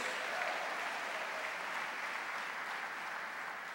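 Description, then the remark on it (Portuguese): A church audience applauds Jesus steadily, a dense wash of many hands clapping at an even, sustained loudness throughout, with no voices standing out above it. “Quem quer esse selo do sangue de Jesus na sua vida, aplauda Ele, diga aleluia, diga glória a Deus.”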